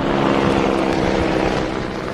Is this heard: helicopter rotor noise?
yes